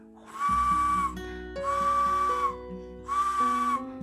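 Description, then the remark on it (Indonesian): A spinning toy bird whistle is blown three times, each a steady, fairly loud shrill tone lasting about half a second to a second, with short pauses between and no talking. “burung burung bisa muter bisa muter eh oh gitu coba ditiup peluitnya peluit burungnya”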